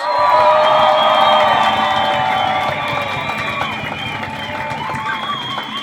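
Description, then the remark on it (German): A large crowd at a rally cheers and whoops loudly, sustained and dense, with whistles and shouts layered over a steady roar that eases slightly toward the end. “Mach's mal Lärm für die Omas gegen rechts!”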